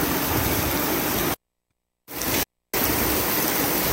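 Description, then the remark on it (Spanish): Floodwater rushes along a street stream (arroyo) in Cihuatanejo, flowing out past neighbours' flooded houses, in a loud, steady roar, with no voices. The roar cuts out abruptly twice before resuming. “Miren, a mi vecino de aquí enfrente le sale el agua ya por su casa, por el arroyo.”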